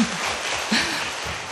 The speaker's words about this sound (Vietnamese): cuối cùng đó nói rất là ngắn gọn nhưng mà rất là chính xác ha quý vị cho thêm trang vỗ tay nữa